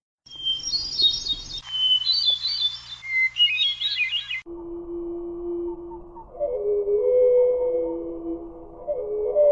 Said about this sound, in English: Here's one that I've not heard in the wild. Uh, this is the North American hermit thrush. Uh, we're going to hear it at normal speed and then slowed down.